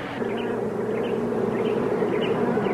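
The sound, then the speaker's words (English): A dense, steady drone of many bees buzzing around and oozing out of a hive, continuous for the whole stretch, with no talking and no breaks in the hum. “There's bees oozing out of this hive.”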